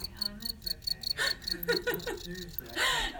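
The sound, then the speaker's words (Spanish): A cricket chirps in quick, steady pulses, slightly muffled inside a bicycle pannier, while bag fabric rustles and shuffles loudly over it, followed by a brief murmured voice. “Estábamos escuchando el grillo.”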